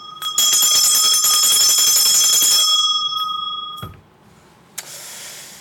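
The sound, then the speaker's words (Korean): A stock exchange opening bell, a loud electric bell, rings continuously for about three seconds at the market open with a bright, metallic buzz, then cuts off, leaving faint crowd noise and a brief thump in the background. “자, 지금 이제 개장을 했네요. 네. 자, 개장 종 올리고 보도록 하겠습니다.”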